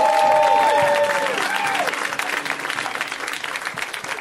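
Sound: audience applause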